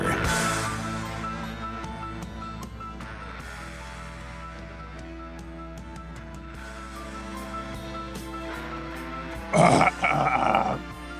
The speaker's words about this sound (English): What the heck was that? That was me clearing my throat.